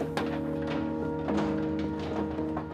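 Pigs being loaded on a conventional family farm in western Lower Saxony, Germany: dull thuds and knocks land roughly every second over a steady, droning, high-pitched squeal or whine, with no talking.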